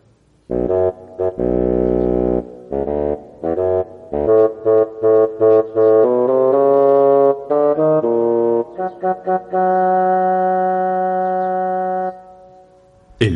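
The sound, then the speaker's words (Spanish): A solo bassoon plays the theme of Pedro's grandfather, a low, reedy melody that moves from short detached notes into longer sustained tones, steady and fairly loud with no voices. “El tema del abuelo de Pedro es interpretado por el fagot.”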